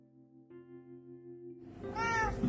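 A cat meows, starting with a steady, drawn-out tonal cry that rises into a louder, brighter, more strained meow toward the end, with no talking.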